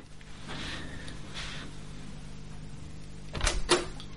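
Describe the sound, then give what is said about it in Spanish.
A door is opened to receive a Wallapop delivery: faint scraping and shuffling, then two sharp clicks and thuds of the latch and door near the end, with no one speaking. “Perdón, un momento, voy a abrir la puerta y, es que estaba esperando un pedido de Wallapop.”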